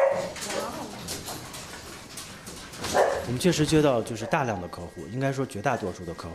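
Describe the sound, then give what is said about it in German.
A cloned puppy, jumping up at a man's leg at a pet-cloning company on the outskirts of Beijing, China, yips and barks in a run of short, high-pitched yelps and whiny cries bunched in the second half, over a low murmur of background voices and noise. “An seinem Bein springt ein geklonter Hundewelpe hoch.”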